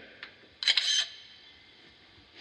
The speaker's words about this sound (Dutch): dat is dus de mogelijkheid om bij ons een foto te maken. Daar druk je eenmalig op. En dan hoor je ook het geluid van een foto maken.